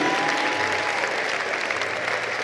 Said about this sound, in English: Why are you clapping like it's not a big deal? It's a big deal.